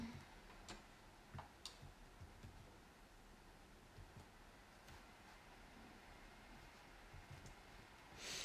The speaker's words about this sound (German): wann macht dein Computer eigentlich diese Geräusche? Hat er das schon immer gemacht?